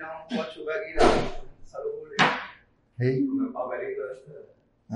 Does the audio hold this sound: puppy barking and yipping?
no